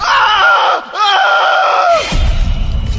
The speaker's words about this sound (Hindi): खिड़की बंद करके मुंह पर से पानी की छींटे पहुंच के पलटा ही था की आकृति की ओर देखकर जोर से चीखा